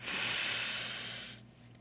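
A single long, steady deep breath drawn in so that it goes up to the chest, an airy hiss lasting over a second before fading out, with no talking.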